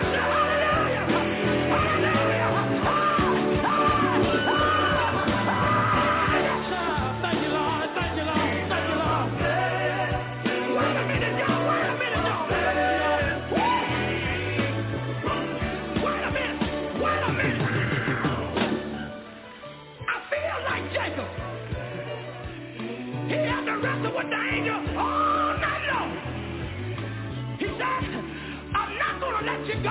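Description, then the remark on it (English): A large crowd shouts and yells together in response to a preacher's call, a loud, sustained roar of overlapping voices, dipping briefly in the middle before swelling back up. “If you know God will make a way for you, let me hear you say, ah!”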